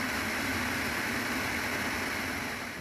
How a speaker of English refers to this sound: Cue the static.